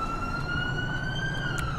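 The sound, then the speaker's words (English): A fire truck siren in a video game wails steadily, a long sustained tone with slight pitch drift, over a low engine rumble. It sounds fairly loud, with no voices. “There's a fire truck and a man glitching through the map.”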